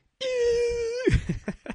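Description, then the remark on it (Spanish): A dinosaur scream: one long, loud, steady high wail that suddenly drops into a rough growl, followed by a few short, sharp grunting bursts. No talking. “Gritos de dinosaurios, güey.”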